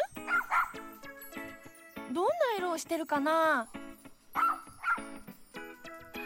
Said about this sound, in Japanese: あれ何か聞こえないあ何の鳴き声かわかるあワンちゃんだかわいいほらほら君の方を見てるよこのワンちゃんどんな顔をしてる